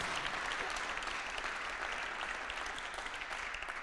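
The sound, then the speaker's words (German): Steady, sustained applause from an audience at a Sunday gathering, given for volunteers who set everything up, a dense wash of many hands clapping at an even loudness throughout, with no voices standing out. “Und jetzt dürft ihr mal einen fetten Applaus geben.”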